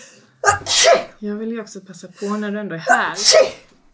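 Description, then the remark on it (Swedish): Two sharp sneezes burst out, one near the start and another a few seconds later, with someone speaking in between. “Ja, prosit.”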